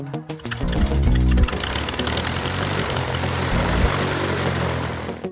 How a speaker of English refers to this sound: You're going to be hearing a little bit of background noise throughout the day, but it's just airplanes, so it's not, it's, it's not really noise. Good background noise.